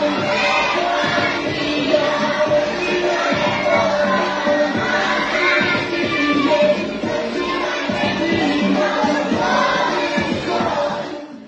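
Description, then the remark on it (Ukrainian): A group of children sing together along with a song played loudly as music, their many voices blending into a dense, steady wall of sound that stays loud and continuous for the whole stretch. “И э, часть детей там поют вместе э, с этой песней, и учительница передвигается как бы еще в ритме танца.”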